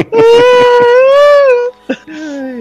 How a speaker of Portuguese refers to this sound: Você que tá ouvindo esse podcast aí, desculpa aí meu grito no ouvido, galera. É mais forte que eu.